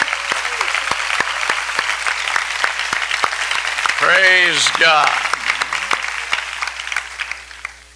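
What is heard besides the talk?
audience applauding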